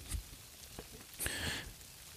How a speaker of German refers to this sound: Ja, also morgens um 6 Uhr durch den Wald spazieren. Leute, ich kann euch das nur empfehlen. Blöd, dass es regnet, aber das geht. Finde ich jetzt nicht so schlimm. Das stört mich eigentlich wirklich nicht.